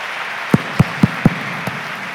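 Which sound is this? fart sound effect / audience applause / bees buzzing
audience applause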